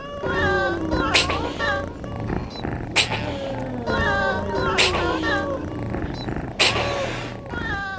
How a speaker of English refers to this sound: with Little Bub uh, mm-hmm. uh, meowing over, over their grooves.